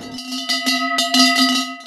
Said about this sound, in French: C'est une grosse cloche euh, de vache, évidemment. Elle est, dédiée euh, uniquement pour, Alexis, parce qu'elle est son, effigie et son portrait qui est peint sur la cloche